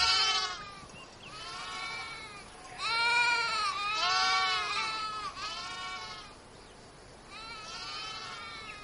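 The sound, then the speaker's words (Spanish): Sheep bleat repeatedly in a series of wavering, quavering calls, some overlapping, moderately loud with short pauses between them and a soft background hiss, as a ewe nurses a small lamb. “Una oveja amamanta a un pequeño cordero”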